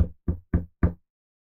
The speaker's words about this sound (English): But you know, knock on wood,